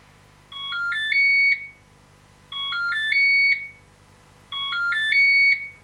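A short electronic melody of rising tonal notes plays three times in a row, evenly spaced, each phrase about a second long and ending on a held high note, with no voices present.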